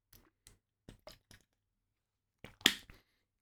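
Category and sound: food or drink, sipping water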